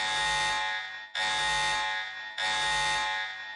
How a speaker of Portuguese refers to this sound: E alarme de, alarme de spoiler agora de tudo.